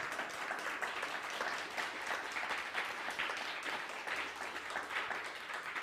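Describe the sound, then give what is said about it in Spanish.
Steady applause from a crowd, a dense continuous patter of many hands clapping at an even level for several seconds, with no voices standing out. “Un fuerte aplauso nuevamente, Baruch Hashem.”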